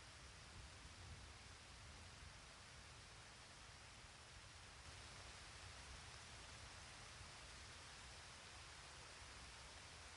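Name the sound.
heavy rain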